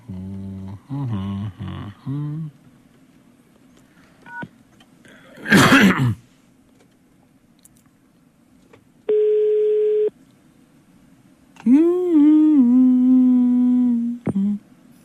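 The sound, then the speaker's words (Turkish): A single steady electronic telephone tone sounds for about a second after a call drops, surrounded by throat clearing, a sharp cough-like burst and wordless vocal murmurs. “Ah Ayten düştü hattımızdan ya.”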